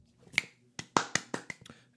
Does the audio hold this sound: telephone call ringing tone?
no